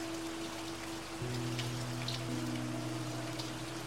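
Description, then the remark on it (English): Steady light rain outside patters on windows, a soft continuous wash of drops with a faint low hum beneath it. No voices, just the even rainfall throughout. “Hearing and perceiving the raindrops slightly touching the windows, rhythmically, consistently.”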